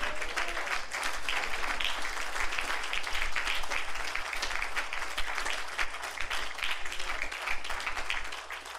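An audience applauds in a dense, steady wash of many hands clapping, sustained at an even loudness for several seconds without any talking over it.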